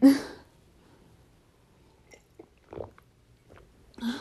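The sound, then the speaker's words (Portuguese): Someone drinking water: a few soft, wet swallowing gulps spaced out over a quiet stretch, bracketed by short breathy bursts at the start and end. “Um, peraí, pausa para beber água.”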